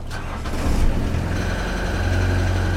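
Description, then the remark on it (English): A boat engine cranks and catches with a brief rough surge, then settles into a steady, low, droning idle without any voices. “Well, she sounds like she's been kept up pretty well.”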